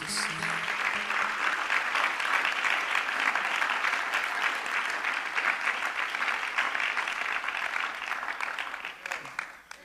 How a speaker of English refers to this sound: Will you just clap your hands today for what the Lord is doing?